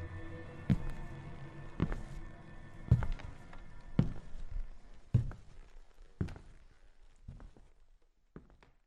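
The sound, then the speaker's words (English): Slow, heavy footsteps approaching from outside a door thud at a steady, unhurried pace, about eight in all, sounding somewhat muffled, over a faint low hum with no talking. “However, I can hear footsteps approaching from outside the door.”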